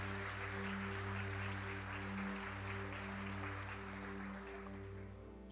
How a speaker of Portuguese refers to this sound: Aplauda o Senhor Jesus. Aplauda o Senhor Jesus.